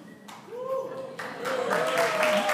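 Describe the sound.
An audience breaks into applause after the performer says he turns 60 in a month: a dense wash of clapping that starts softly and swells louder partway through, with a voice calling out over the noise.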